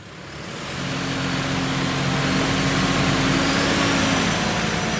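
A tractor on a test bench at the Technologie- und Förderzentrum Straubing revs up and holds at a loud, steady roar, a low mechanical drone with harmonic hum, while experts measure its fuel consumption, nitrogen oxides and fine particulates; no voices.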